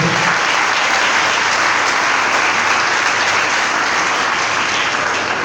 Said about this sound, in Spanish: Denle un aplauso a Cristo Jesús, por favor, en esta noche.